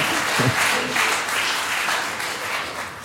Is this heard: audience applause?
yes